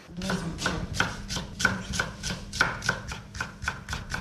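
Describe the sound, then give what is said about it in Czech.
A knife finely chops onion on a cutting board, to be sautéed in butter in a pot, in a quick, steady rhythm of crisp taps, about two or three per second, with no talking. “Tak vezmeme si hrnec, dáme si do něj máslo, nakrajíme si cibulku najemno, hodíme ji tam, čekáme, až se nám orestuje.”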